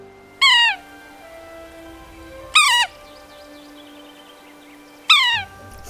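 A sapsucker gives three loud, nasal mewing calls, each a short downward-slurred squeal spaced a couple of seconds apart, sounding almost cat-like against a quiet outdoor background.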